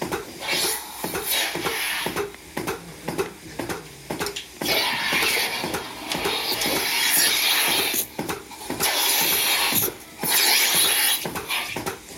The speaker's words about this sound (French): Donc là on tire les premiers jets. Et après, on met la machine dessus pour traire.